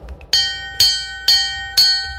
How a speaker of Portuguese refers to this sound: Cadê a campainha, hein? Tem essa corda aqui. Será que essa corda é a campainha? Deixa eu balançar aqui essa corda.